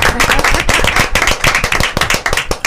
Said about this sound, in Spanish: Tienen que aplaudir, vamos a ver.